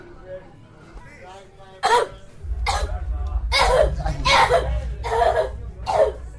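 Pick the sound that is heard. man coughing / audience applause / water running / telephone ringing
man coughing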